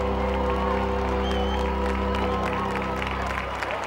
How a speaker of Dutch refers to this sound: De reactie van het publiek is onwaarschijnlijk. De hele zaal davert en weer van de emotionele uitbarstingen.